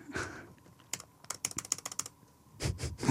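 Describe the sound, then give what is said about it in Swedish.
Rapid, forceful clicks and key taps on a computer to bring something up on screen, a quick irregular burst of sharp clacks with a few heavier thumps at the end. “Hör hur du så aggressivt klickar på datorn för att få upp det.”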